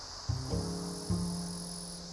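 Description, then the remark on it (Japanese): A steady, high-pitched insect drone, like crickets chirping, runs through the whole moment outdoors in nature where grasshoppers, butterflies and other insects are around, with a low humming tone rising underneath partway through. “バッタとか蝶とかいろんな虫がいてカラスもいて”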